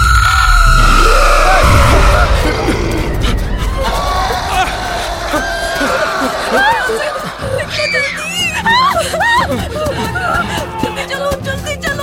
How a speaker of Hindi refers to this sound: किसी औरत की जोर से चिल्लाने की आवाज और उसके बाद कई सारी अजीब अजीब सी आवाजें आने लगी